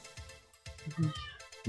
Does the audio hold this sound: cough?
no